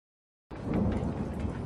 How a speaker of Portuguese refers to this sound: Vocês ouviram isso? É o som do trovão. Mas não! Esperem! Não é trovão! É uma. Horda de zumbi